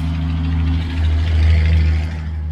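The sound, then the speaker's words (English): A heavy truck rumbles past, its deep low engine drone swelling slightly in the middle and then easing, steady and loud throughout with no voices. “Hold on, big truck.”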